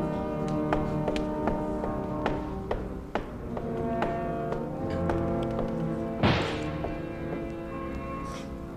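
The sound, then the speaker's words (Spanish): Scattered sharp gunshots from street fighting crack at irregular intervals, some faint, with one louder burst near the end, all over a steady, humming tonal background and no voices. “¡Tiros! ¡Están luchando!”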